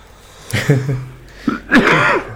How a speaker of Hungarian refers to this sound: Egyébként mindig a, mindig a könyök hajlatomba köhögök, amikor hallotok köhögni. És tényleg ez nem száraz köhögés, hanem hurutos.